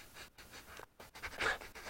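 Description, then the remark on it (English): A person imitates the quick sniff a dog makes when it picks up a trail: several short, breathy nasal sniffs in fast succession, with brief pauses between bursts and no talking. “they start to twitch their nose a little bit they'll do a quick sniff kind of like a dog when it picks up a trail i smell something what is”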